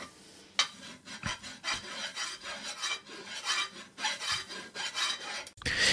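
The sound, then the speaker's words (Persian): In a film scene without music, a pickaxe scrapes against the rock wall of a well as a man digs, in a steady series of harsh, rasping strokes, loud and gritty, echoing inside the well. No voices, just the repeated grinding scrape. “این صدایی که داره اکو پیدا میکنه توی این چاهه دوباره شروع میکنه دیوار کندن”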